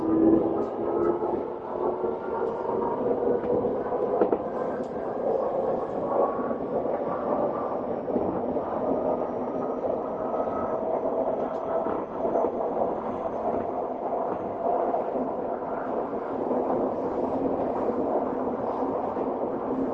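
A steady, loud rumble of a Tokyo Metro 7000 series subway train running between stations on the Shin-kiba to Nerima route, heading for Senkawa station, with low droning motor hum and tonal whine bands that slowly shift in pitch over continuous wheel-on-rail noise. No voices.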